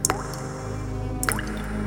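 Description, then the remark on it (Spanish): Blood from a shot man lying on the floor drips into a growing pool in a few wet plinks: a quick pair of drops, a pause of over a second, then another drop, over a faint steady hum with no voices. “La sangre cada vez hace más charco.”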